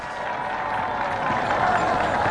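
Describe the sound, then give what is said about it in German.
A huge crowd of 250,000 spectators in the Circus Maximus in Rome cheers as twelve chariot teams shoot from their starting boxes at the start of a chariot race, a dense, continuous roar, loud and steady throughout and swelling slightly toward the end, with no single voice standing out. “Zwölf Gespanne schießen unter dem ohrenbetäubenden Jubel des Publikums aus ihren Startboxen.”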